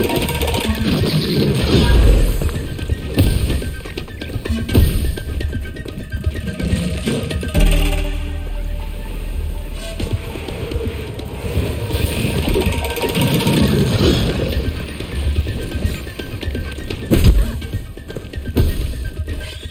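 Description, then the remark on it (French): Video game background music driven by busy, steady drums plays continuously at a fairly loud level, with dense percussive hits throughout and a brief, more tonal stretch partway through. “ça permettait quand même de voir les différents instruments et tout. C'était intéressant aussi. Ouais avec les tambours”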